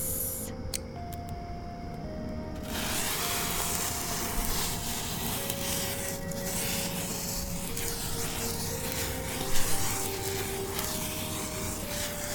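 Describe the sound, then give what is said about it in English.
A lit sparkler fizzes and crackles in a steady, unbroken hiss that stays fairly loud for the whole stretch, with a faint sustained tone humming underneath. “We've got some black cats, some Roman candles, and some sparklers here.”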